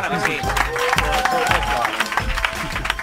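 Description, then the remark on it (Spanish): An audience welcoming a writer, speaker and coach breaks into loud, sustained applause, dense rapid clapping running steadily throughout, with scattered cheers and shouting voices rising above it. “Recibamos con un fuerte aplauso al escritor, conferenciante y coach”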